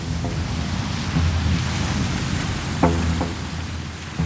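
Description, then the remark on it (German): A steady wash of churning water and low engine rumble from a 33-metre, six-metre-wide passenger ship of the Chiemsee fleet ploughing through icy water on Lake Chiemsee, Bavaria, in mid-November, with fog over the waves, wind noise over it and a couple of brief knocks partway through. “Durchpflügt das eiskalte Wasser, das träge wirkt, fast wie Öl.”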